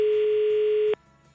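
A steady, unbroken telephone tone hums at one pitch for just under a second as a phone call from Santa Claus to a five-year-old girl connects, then cuts off abruptly, leaving faint low background noise.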